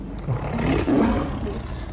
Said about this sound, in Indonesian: terus habis itu kan kita turun dari puncak hiang itu ada suara kayak auman harimau